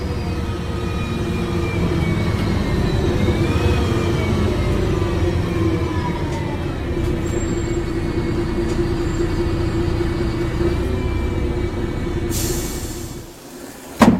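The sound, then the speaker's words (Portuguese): A bus drives along with a steady, loud engine rumble and rising and falling gear whine, then slows as a burst of air-brake hiss sounds near the end and the engine settles. “O ônibus parou.”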